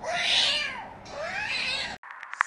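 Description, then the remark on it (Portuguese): Two drawn-out, fairly loud cat meows, one after the other, each sliding in pitch, followed by a brief silence and a few small clicks and rustles. “E agora vamos para as rapidinhas da semana e ela já vem em ritmo dinâmico. Como um gato.”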